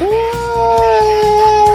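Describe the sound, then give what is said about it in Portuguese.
Eerie screaming and moaning of people from a deformed creature about 15 metres tall, a mass of flesh full of pustules, arms and legs: a loud, drawn-out wail holding nearly one steady pitch with layered overtones, while faint rhythmic thumps pulse underneath. No one speaks. “Parece uma maçaroca de carne, cheia de pústulas, braços, pernas e pessoas gritando e gemendo. E vocês escutam.”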